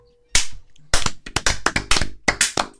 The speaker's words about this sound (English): Everybody, I want a round of applause for PJ Fleck's Agent.